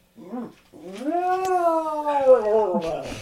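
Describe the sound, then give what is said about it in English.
A cat named Lenny, saying hi, lets out a short chirp, then a long, loud, drawn-out yowl with a rising-then-falling wavering pitch, lasting a few seconds and ending in a rougher, strained edge. “There's Lenny saying hi, sounding like a blender.”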